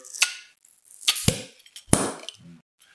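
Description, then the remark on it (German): A swing-top bottle of Redenburger Christmas beer, long stored with its rubber seal stuck, being opened: a few sharp clacks and snaps of the wire latch, then a louder hollow pop with a brief low thump, followed by faint fizzy rustling. “der ist lang überlagert, Gummiklebt an. Vom Brembeverschluss.”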